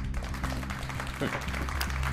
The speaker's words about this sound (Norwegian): Ja, så dere klapper for det.